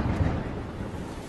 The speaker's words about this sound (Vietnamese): Dứt lời thì một ánh chớp lóe lên Rồi từ trên trời đổ xuống một cơn mưa tầm tã Dưới ánh sáng nhàn nhàn từng hạt mưa xin dẻo đổ xuống